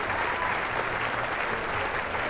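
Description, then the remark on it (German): Steady audience applause for the players of a game, a dense, even wash of many hands clapping at constant loudness throughout, with no single claps standing out and no one speaking over it. “ich würde sagen, nochmal einen kleinen Applaus für euch!”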